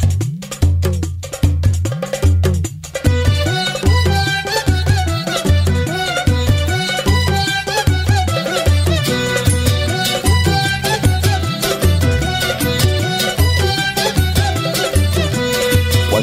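An upbeat, full-band frevo-style song with a steady driving beat, bright repeated percussion hits like a cowbell, and dense brass and strings, played loudly throughout with no talking.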